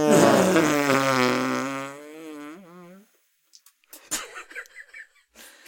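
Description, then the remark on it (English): A long, buzzing mouth-made fart imitation blown with loose lips against the beefier part of the forearm, loud at first and then trailing off into a sputter, followed by brief laughter. “Trail that off like a like a real fart.”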